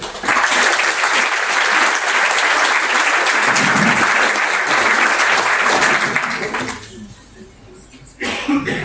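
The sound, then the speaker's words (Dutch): An audience claps loudly and steadily for a game, a dense wash of many hands that holds for several seconds, then thins out and fades at the end. “Dus graag u wel gemeente applaus voor een fantastisch spel.”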